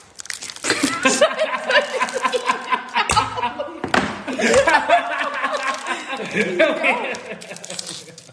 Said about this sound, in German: Guck dir auch, hör doch mal an, wie der Riegel knistert.